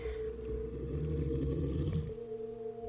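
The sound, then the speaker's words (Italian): A deep, guttural animal growl of unknown source, not from the small dog being walked, rumbles steadily and loudly for about two seconds, then cuts off, leaving a faint low hum. “All'improvviso sento un ringhio.”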